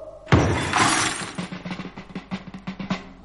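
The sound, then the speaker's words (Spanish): A sudden crash of a collection of Bohemian crystal glass figurines and Chinese vases breaking, followed by a clattering cascade of smaller shards and pieces tinkling and rattling as they settle, with no voices. “Todo mi zoo de cristal de Bohemia roto, mis jarrones chinos, mi todo.”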